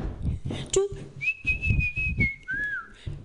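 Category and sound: human body sound, person whistling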